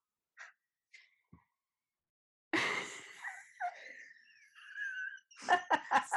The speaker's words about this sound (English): she's laughing because I literally just had, I think, a three minute yawn. My mouth was the biggest it's ever been, ever.